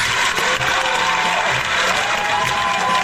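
A crowd applauds steadily, a dense, even wash of many hands clapping at once that holds at the same strong level throughout, with no voices standing out.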